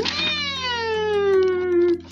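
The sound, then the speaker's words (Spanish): A single long, drawn-out cat meow, loud and plaintive, its pitch sliding steadily downward over about two seconds with no talking. “Al principio fueron unas docenas, luego cientos de gatos los que tuvieron que ir al hospital por un chichón en la cabeza, un arañazo en la oreja o una patita rosa.”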